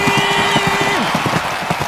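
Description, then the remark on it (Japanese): Galloping horse hoofbeats pound in a quick, steady rhythm, loud throughout, in a mock race call of the Toho Cup in a TBS Radio ad for Toho Gakuen vocational school's broadcast sound course, with a faint sustained tone that slides downward partway through. “スタートしました東方カップと早速飛び出したのは2番放送音響かなんとジョッキーは身を乗り出し足音を収録しているとてもクリアな音質安定している聞こえてくるのは勝利の足音ゴールイン”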